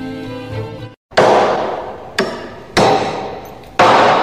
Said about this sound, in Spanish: de repente un par de martillazos resuenan en la pared.